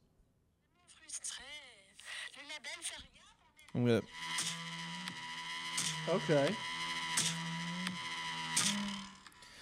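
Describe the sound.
After a brief spoken remark, an indie song kicks in loudly, with sustained synth tones whose pitch bends and wobbles over a steady, full backing.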